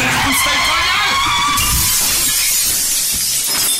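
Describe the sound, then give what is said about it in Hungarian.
A loud, harsh motorcycle skid gives way to a crash of shattering glass, a dense burst of noise that rattles on for a few seconds before cutting off. “Felszállt a motorra és indul, figyelj.”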